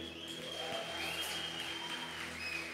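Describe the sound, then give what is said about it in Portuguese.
An audience at a church service claps steadily for a few seconds as the moment for tithes and offerings begins, a dense, even patter of many hands at a moderate level, with sustained keyboard tones humming underneath and no voices. “Você pode aplaudir?”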